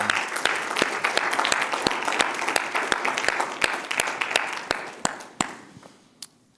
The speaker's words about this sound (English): Let's give the Lord a hand clap of praise.